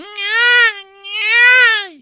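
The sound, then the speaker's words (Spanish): A voice imitates a newborn baby's cry with two drawn-out, wavering wails separated by a brief pause, loud, with no other sounds around it. “Como que se arma esta conexión telepática y de entendimiento del lenguaje llanto Perrinche, ¿no?”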